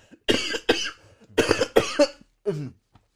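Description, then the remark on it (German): A loud coughing fit: several harsh, rapid coughs in quick bursts, a brief pause, then a few more, ending with a rougher, throaty cough. “Jetzt muss ich husten.”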